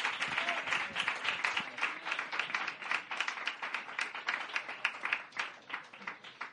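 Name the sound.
audience applause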